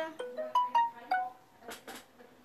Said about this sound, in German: Okay, falls ihr das Geräusch ganz hört, ich krieg ganze Zeit Einladungen von Öden im Podcast. Von Spike Pro. Ich zock halt aber gerade. Darum nehme ich nicht an.